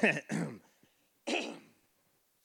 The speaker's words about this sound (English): That wasn't a fake cough. It sounded like I was. My throat's dried.